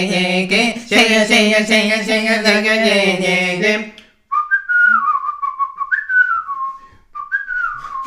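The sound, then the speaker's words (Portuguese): A voice hums a wavering, harmonic-rich tune, then switches to a clear, bright whistled melody imitating a flute, the whistler making flute fingers, with short sliding phrases and brief pauses between them. “sei que só estou a assobiar, mas estou a fazer uh, com os dedos.”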